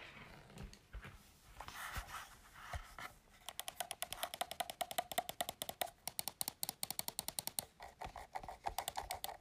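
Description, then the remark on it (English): Buttons on a Pro Controller game controller are pressed rapidly, a fast, uneven run of sharp plastic clicks following a few seconds of softer handling and rustling noise. “Jetzt drücke ich auf meinen Pro Controller herum.”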